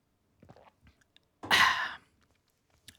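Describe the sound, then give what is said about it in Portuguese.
Soft mouth sounds of someone sipping and swallowing a small sip of water, a few small wet clicks followed by a breathy, satisfied exhale, then one more faint click. No talking. “Desculpem, só aqui um golinho d'água.”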